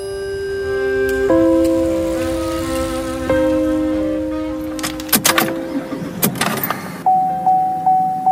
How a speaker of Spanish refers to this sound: No, no es la alerta sísmica, pero casi. Cuando uno escucha el pitido del coche indicando que el tanque de gasolina ha llegado a la reserva, algo parecido al instinto de conservación nos arrastra a ese otro triángulo de seguridad que es la estación